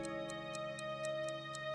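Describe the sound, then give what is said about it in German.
Grandpa's clock ticks in the middle of the night in a steady, even rhythm, several crisp ticks per second, heard over a soft, sustained tonal hum in the background. No one speaks. “Mitten in der Nacht verwacht der Bruno und hört, dass im Großpapi seine Uhr wieder tickt.”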